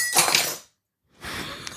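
A very long metal bar spoon, being used to stir at a microphone, tips out of a glass and flips over, clattering against the glass with a bright, jangling burst, then a pause and a second, softer rattle of clinking.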